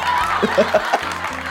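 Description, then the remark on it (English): A voice imitates a sitcom studio audience cheering for an entrance: a quick run of short whooping, laugh-like bursts, moderately loud, over a steady low background hum. “the little like waiting for the audience to finish as they all cheer for their entrance.”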